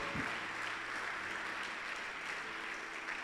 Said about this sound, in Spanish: Así que todos los que estamos aquí, que hemos recibido a Jesucristo y hemos creído en Él, los hijos de Dios le dan un aplauso al Señor en esta noche.